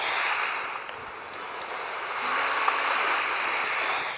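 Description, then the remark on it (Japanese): Soft, continuous wash of ocean waves lapping at a shore in the video game Animal Crossing, a steady hiss that swells gently midway through and then settles, with no voices over it. “波のさざめきの音して、これ聞こえてるこれ。”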